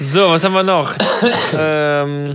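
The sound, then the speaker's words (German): A man speaks, breaks off for a short, rough cough in the middle, then carries on with a drawn-out hesitation sound. The cough is fairly loud, a single brief burst. “Hat gehustet.”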